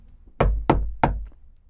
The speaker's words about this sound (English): He knocked on the door,